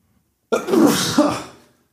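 One loud sneeze bursts out abruptly, a drawn-out breathy blast that trails off over about a second, with quiet before and after and no talking.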